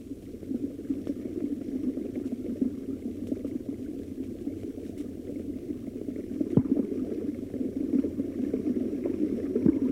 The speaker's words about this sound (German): heute sitzen Handweber uralt in den Dörfern am Eulengebirge. Vor den armseligen Hütten rauscht der Bergbach.